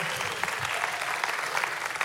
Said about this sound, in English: It's your applause.